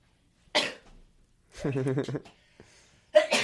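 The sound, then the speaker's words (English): Two sharp, breathy sneezes burst out about two and a half seconds apart, with a short voiced vocal sound between them, otherwise quiet. “Bless you. Sneeze tape.”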